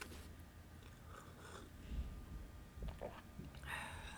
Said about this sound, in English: So the section I want to read, excuse me, today, I'm gonna sip some of my tea.